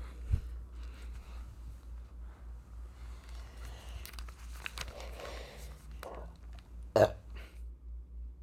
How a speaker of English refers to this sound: Uh, sorry about the grunt I had to make to stand up. I'm getting older.